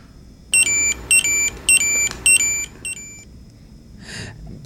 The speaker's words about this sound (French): Alors, c'était un Tamagotchi.